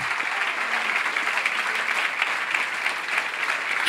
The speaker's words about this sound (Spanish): Dale un aplauso mejor de ahí al Señor.